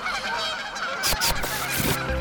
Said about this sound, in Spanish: A la derecha podemos encontrar hienas, gansos disfrutando del río en nuestras espaldas o una gran cantidad de aves volando por nuestras cabezas.